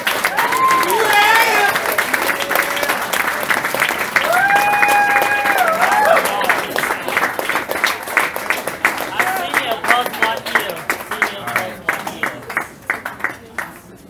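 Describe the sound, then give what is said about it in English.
A crowd applauds the seniors as they come up to line up across the front, with dense, rapid clapping and a few whoops and cheers early on, then the clapping thins into scattered, distinct claps as it tapers off toward the end. “Can we give them a round of applause as they come yeah.”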